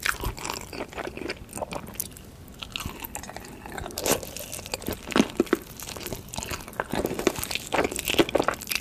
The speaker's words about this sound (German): Du sprichst von Mukbang, so heißen die Videos, ja, in denen man nichts anderes macht als ja, gucken, wie sich Leute Berge von Essen reinziehen